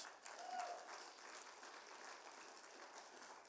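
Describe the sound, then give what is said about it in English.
Steady applause from a crowd at the inauguration of a new school building fills the whole stretch, a dense wash of many hands clapping at even loudness, with no voices rising above it. “Uh, this is uh, the newer building that we have, an expansion, and um, we can clap.”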